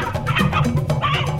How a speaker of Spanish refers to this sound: Mira, este es Pacho, el gallo mío.